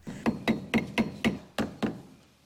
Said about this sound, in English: Ira Rosenberg's only daughter nailing crucifixes to her bedroom wall?